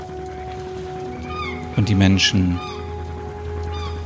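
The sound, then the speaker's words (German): Seagulls cry out in repeated shrill, wavering calls over a steady low hum of ferry engines, heard from a bench by the water in Ackerbrücke, a large city, while a person speaks briefly in the middle. “Wir hören die Möwen, wie sie kreischen”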